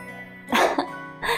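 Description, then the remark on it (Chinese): A voice imitates a little pig's sneeze in a bedtime story: a sharp, breathy two-part burst, followed by a quieter huff of breath a moment later. The sound comes alone, with no other talking. “终于，小猪猪实在痒的不行了，啊啾，打了一个喷嚏。”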